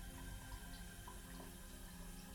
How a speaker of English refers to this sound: She sits up in bed with the sheets wrapped around her. She sees that the bathroom light is on and can hear the shower running.